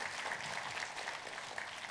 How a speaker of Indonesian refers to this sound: Tepuk tangannya pula yang paling meriah buat Tuhan kita.